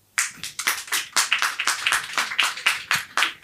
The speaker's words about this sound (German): Okay, pass auf, wir machen das wie beim letzten Mal mit der, mit der Wochenaufgabe. Ihr klatscht einfach bei dem Titel, den ihr am äh, meisten wollt.